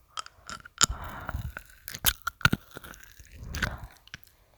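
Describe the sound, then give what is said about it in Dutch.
Loud crunching and chewing of hard supermarket gumballs, with sharp cracking bites in irregular bursts followed by wetter grinding mastication. “Kauwgomballen.”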